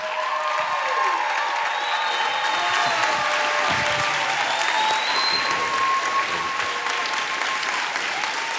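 A large church audience stands and applauds steadily to welcome a guest pastor, dense clapping at a sustained loud level, with a few faint shouts and whistles rising over the ovation throughout.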